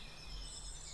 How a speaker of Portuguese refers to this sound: Ouviu os passarinhos cantarem.